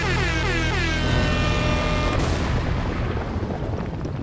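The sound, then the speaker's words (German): A short, loud segment jingle: brassy, horn-like tones with sweeping pitch, then a noisy, rumbling crash that fades slightly at the end. No one speaks over it. “Aber machen wir mal erstmal den Jingle.”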